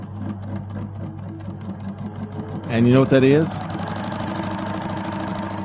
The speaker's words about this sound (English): Sounds like a really fast machine gun. Is that yeah. an electric car? Okay, it's a sewing machine.